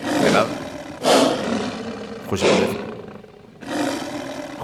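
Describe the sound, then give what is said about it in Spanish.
A lion roars in a series of deep, rasping bellows, four loud, powerful bursts with short pauses between them, with no talking. “es un auténtico, un auténtico león, ¿eh? de verdad.”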